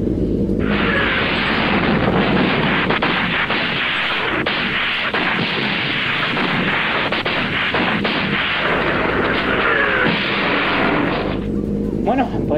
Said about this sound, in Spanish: parece que el tren ha explotado un poquito, yo que sí unos fuegos artificiales, pero ha quedado todo muy bonito.